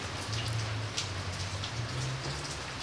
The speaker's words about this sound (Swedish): Jag satte mig upp, vimmelkantig, med mina fingrar fumlandes på min telefon för att kontrollera tiden när jag hörde ett stänkljud utanför.